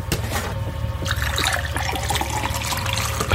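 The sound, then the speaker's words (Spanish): Water pours steadily into a glass, a continuous bright splashing trickle lasting a few seconds with a low hum underneath, no voices present. “¿Más agua?”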